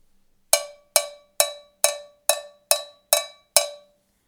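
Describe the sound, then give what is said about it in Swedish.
A cowbell struck eight times in a steady, even rhythm, each bright metallic clank ringing with a sharp attack and a quick decay. No voices accompany it. “vi är peppade och vi gillar cowbells”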